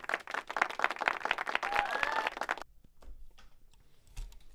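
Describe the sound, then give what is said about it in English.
A burst of clapping from several people, dense, lasting about two and a half seconds before cutting off abruptly, followed by faint scattered noises and quiet background. “yeah, that that deserves a uh, clap for sure.”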